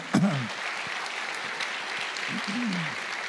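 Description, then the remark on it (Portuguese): An audience applauds in a steady, dense wash of clapping that holds for the full few seconds, with a couple of brief voices calling out over it. “Palmas.”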